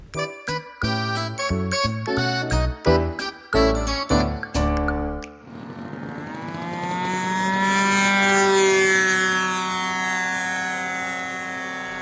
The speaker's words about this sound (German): Ich hab's gefunden. Ihr könnt es vielleicht schon hören. Ich befinde mich auf einem Modellflugplatz zwischen Hohenau und Hausbrunn. Bei schönem Wetter kann man hier am Wochenende bei den Flügen der Modellflugzeuge zuschauen.